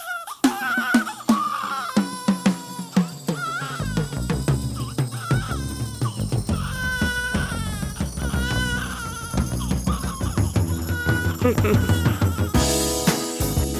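A soul-pop song opens with an infant's wavering cries over a steady groove of drums, bass and keys. The crying sits up front and loud, blending into the music as the track gets going.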